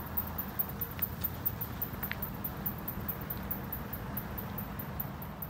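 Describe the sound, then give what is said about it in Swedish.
Faint, very high-pitched ticking of parti-coloured bat echolocation calls at about 25 hertz repeats in a fast, steady rhythm above a constant windy rush of background noise. “Har du bra hörsel så kommer du nu höra en gråskimlig fladdermus ekopejla på ungefär 25 hertz.”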